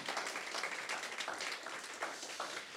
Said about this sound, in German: Aber wir wollen auch die Menschen zu Hause begrüßen und wir wollen das noch einmal tun, bitte, mit einem großartigen Applaus für die Menschen, die uns von zu, Hause zuschauen.